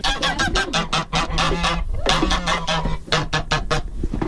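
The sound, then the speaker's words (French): A flock of geese honks loudly and continuously, with many overlapping calls in quick, uneven bursts, without any talking. “Ah puis il y a des oies également.”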